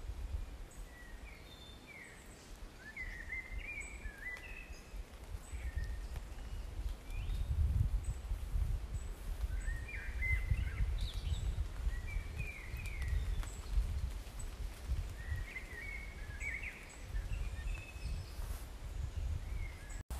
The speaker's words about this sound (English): Both my grandson and I were thoroughly drenched after that, but we stayed on to listen to the birds waking up after the rain, and then they started to sing again in the trees, so I recorded that for you too.